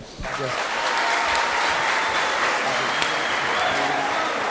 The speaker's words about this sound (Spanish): Eres de los pocos salseros que quedan de verdad que existen en el, en mundo. Así que un fuerte aplauso para él.